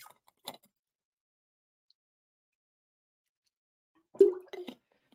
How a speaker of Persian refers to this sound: ببخشید من زری آب بنوشم